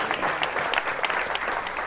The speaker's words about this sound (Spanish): Amén, aplaudimos al Señor, aleluya.